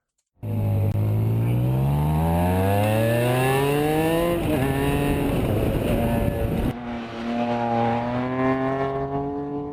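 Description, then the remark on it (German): An inline six-cylinder car engine revs up steadily, its pitch climbing in a smooth harmonic whine, then drops and holds at a lower hum before rising again. Loud, no voices. “Ein rein Sechszylinder? Ja, richtig.”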